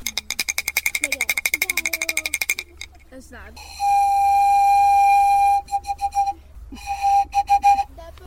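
A breathy bamboo pan flute holds one long, steady mid-pitched note, then plays a few short repeated toots. A quick run of rapid rhythmic clicks comes before it.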